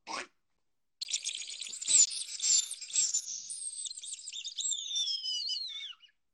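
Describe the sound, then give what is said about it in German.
A high, strained squealing wail blown on a hunting lure, imitating a seized bird's distress cry, with a short squeak followed by a continuous warbling, wavering call that slides downward before stopping. “Und dann, wenn der Vogel quasi gepackt wurde und dann macht”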